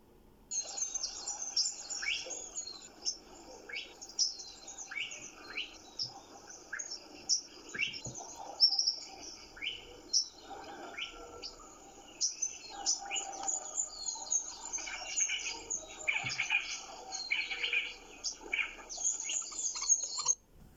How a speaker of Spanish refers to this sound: En la mañana cuando despierto escucho el sonido de los pajaritos.